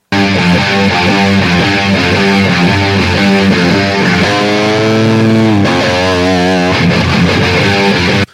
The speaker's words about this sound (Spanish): Fijaros cómo puede ser que haya una persona que esté preocupada, que en medio de la canción ahí esté tocando con la, con la reverberación puesta y solo para esa nota se la quiten. Escuchar.